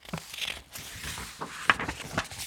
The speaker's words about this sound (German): Pat sitzt zurückgelehnt auf ihrem weißen Sofa und blättert in einem antiquarisch aussehenden Buch.